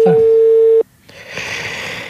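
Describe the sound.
A steady, clear telephone ringing tone sounds once for under a second, then stops abruptly; after a brief silence, a muffled voice and room noise follow.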